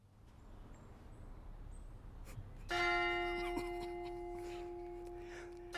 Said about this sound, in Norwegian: Vi hører kirkeklokker.